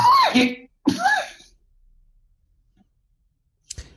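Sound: cough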